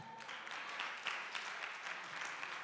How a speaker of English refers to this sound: you must be clapping for god this is wisdom